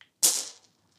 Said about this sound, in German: und ich würde sagen, wir gehen rüber in die Würfelfrage. Ich würfel und los.